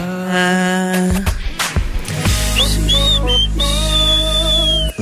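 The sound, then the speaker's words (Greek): A loud, high whistle tone sounds in the second half, sliding slightly in pitch and holding steady, layered over sustained musical notes and a deep bass rumble. “Το σφυρίξαμε και φεύγουμε για τα τηλεοπτικά.”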